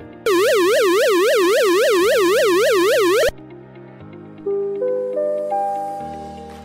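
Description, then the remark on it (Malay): A loud electronic flood early-warning danger siren, sounded when river water passes the danger level and residents must evacuate at once, warbles rapidly for about three seconds, then stops abruptly and gives way to a sequence of rising chime-like tones stepping upward, with no talking. “Kedua, bunyi siren bahaya.”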